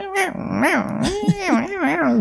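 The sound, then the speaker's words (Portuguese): A person's voice imitates the chattering of the pet cat Oliver, the noise he makes on seeing a bug he cannot reach: a continuous, warbling run of trilled chirps that swoop up and down in pitch for a couple of seconds, fairly loud. “Quem tem gato sabe quando o gato viu algum bicho que ele não tá alcançando, ele começa a fazer uns ruidinhos.”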